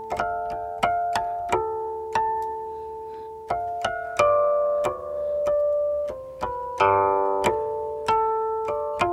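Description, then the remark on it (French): Harmonic tones of a guqin, the Chinese zither, an instrument about 3000 years old, played at a radio station, called the sound of the sky, ring out one after another, bright bell-like plucked notes that sustain and fade, forming a slow, uneven melody with occasional two-note chords. No one speaks. “Ça, c'est le son du ciel.”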